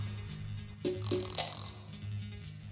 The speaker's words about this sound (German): Dann legt er sich hin und schließt die Augen. Tom braucht nicht lange zu warten. Schon kurz darauf fängt Indiana Joe an zu schnarchen.